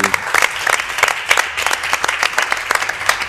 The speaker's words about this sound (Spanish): Bueno, pues lo único que nos queda es eh, despedirnos con un fuerte aplauso porque hemos estado todos aquí.